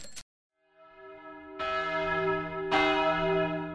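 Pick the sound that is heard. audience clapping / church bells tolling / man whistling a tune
church bells tolling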